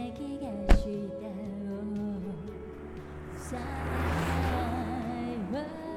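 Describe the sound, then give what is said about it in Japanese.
A car engine hums and revs, its pitch rising and shifting as the vehicle pulls away, with a sharp click near the start and a swelling roar midway. “4時間後の七海の笑顔を想像しながら俺は車を走らせた”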